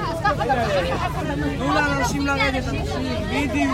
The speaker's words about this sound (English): For those who fear that the train will fundamentally change Jerusalem's character, well, rest assured, just because there's a new tram in town doesn't mean Jerusalem's noise and crowds have disappeared.